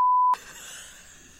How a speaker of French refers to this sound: on le laissera pas, mais on mettra un bip